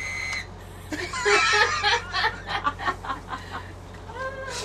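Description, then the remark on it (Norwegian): An indoor attempt at whistling that mostly fails: a rapid, uneven run of dry clicks and breathy sputters, with only brief thin whistle tones at the very start and end. “Jeg skulle fløyte her inne, og bare sånn Hva var det da? Det var, bare var bare klikk, klikk, klikk.”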